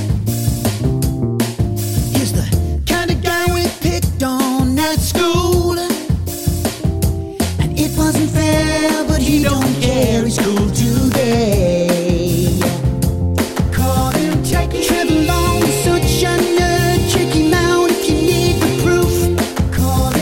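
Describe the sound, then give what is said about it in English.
A loud, upbeat song jingle plays continuously, with a steady driving beat and layered melodic instruments filling the whole stretch, and no talking over it. “Carl or Hadley or someone heard that song.”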